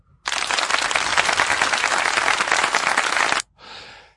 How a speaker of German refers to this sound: Da müssen wir mal äh, tatsächlich kurz Applaus einspielen wenn ich es noch habe, ich habe es gar nicht mehr. Wo ist denn hier der Applaus? Ach, da ist der Applaus.